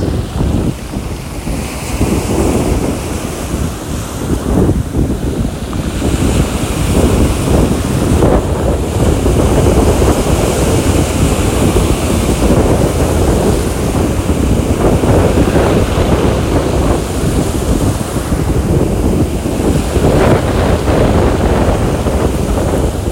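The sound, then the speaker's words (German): Loud, steady surf washes over a beach, with dense clattering textures of stones flying and rolling in the waves, recorded standing right at the beach, under constant wind buffeting the microphone. “Vielleicht hört man jetzt, wie die Steine rumfliegen oder rollen.”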